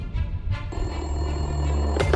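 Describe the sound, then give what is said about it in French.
An old telephone bell rings continuously, a loud metallic trill that starts abruptly and holds steady for about a second and a half before cutting off with a clunk; the phone in Guy Cressan's office as president of the Paris Football Club, in early May 1970. “Au début du mois de mai 1970, quand Guy Cressan décroche le téléphone dans son bureau de président du Paris Football Club, il reconnaît donc tout de suite la voix grave et posée qu'il attend au bout du fil.”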